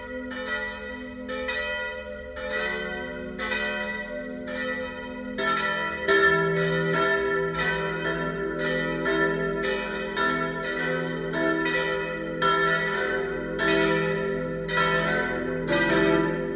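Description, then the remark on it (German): Several church bells of the parish and pilgrimage church of St. Jakobus, St. Laurentius and Heiliges Kreuz in Biberbach, Bavarian Swabia, Germany, peal together at noon, their strikes overlapping in a steady, continuous ring with long humming resonance, loud and clear throughout with no voices. “Das Mittagsläuten kommt heute von der Pfarr- und Wallfahrtskirche St. Jakobus, St. Laurentius und Heiliges Kreuz im bayerisch-schwäbischen Bieberbach.”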